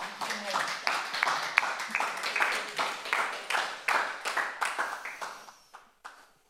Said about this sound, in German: Gib dir doch noch einen Applaus.